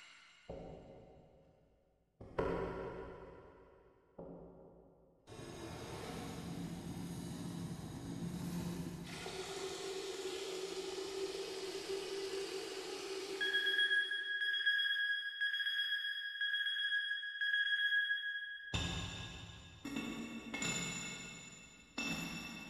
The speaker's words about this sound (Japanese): 何かをジャージャーと炒める音っていうのが、効果音として流れるんですけど、まあ、その効果音っていうのが、まあ、エコーを使ってすごく響いた感じで、すごく不気味な感じで流れてくるんですよね。